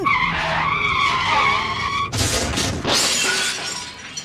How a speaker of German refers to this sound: Und schon haben sie eine Notbremsung hingelegt, mit ärgerlichem Sachschaden.